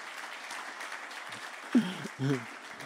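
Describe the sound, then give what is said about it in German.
An audience claps steadily throughout for the winners of a question game, a dense wash of many hands at moderate loudness, with a couple of short voiced shouts or remarks rising over the applause near the end. “Jesus, ja, könnt da klatschen, die haben gewonnen.”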